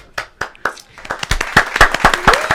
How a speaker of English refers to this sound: got to insert the clapping here.